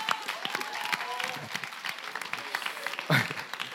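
An audience claps steadily, a dense patter of many hands with scattered louder claps, sustained throughout without pause.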